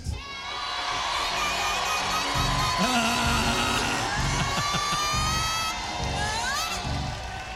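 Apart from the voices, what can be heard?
audience cheering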